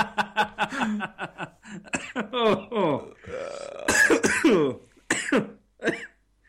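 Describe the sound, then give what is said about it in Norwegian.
A loud coughing fit: rapid bursts of coughs and throat-clearing, broken by strained, laugh-like voiced gasps between the spasms, then a few final harsh coughs. “Og nå lå jeg på hostekule.”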